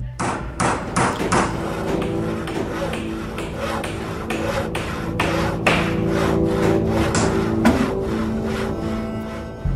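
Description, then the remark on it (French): Hammering as a mock prison is built in the basement of the psychology department at Stanford University in early August 1971: sharp blows land in a quick, uneven rhythm, about twenty strikes, over a steady low hum of background work noise. “Zimbardo lance la construction d'une fausse prison”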